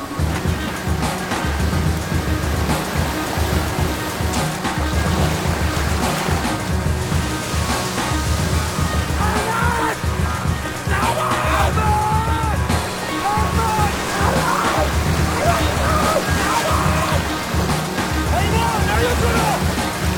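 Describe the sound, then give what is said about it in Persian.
Water sloshes and waves wash steadily and loudly, a continuous churning surge, with faint voices now and then beneath the noise, as someone is in the water. “اینجا تو آبه”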